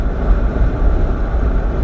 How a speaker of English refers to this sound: Oh shit, let me move out the way of this truck.